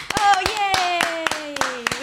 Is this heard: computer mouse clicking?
no